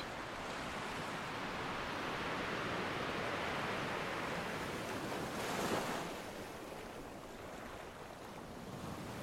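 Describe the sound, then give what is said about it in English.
Ocean waves crash steadily against the shore in a dense, continuous roar of surf, with one louder swell breaking near the middle. No voices, just the sea. “Feel every last drop of sea spray.”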